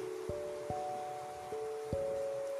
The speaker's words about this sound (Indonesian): Pas banget nih malam-malam hujan.